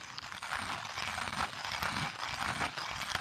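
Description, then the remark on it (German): A hand coffee grinder crunches steadily through coffee beans, a continuous gritty rasp with small rhythmic clicks from the turning crank, heard alone with no talking. “Julian hat gerade in der Handmühle äh, einen Kaffee gemahlen”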